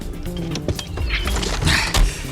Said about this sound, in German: kaum hatte er die Fahrertür geöffnet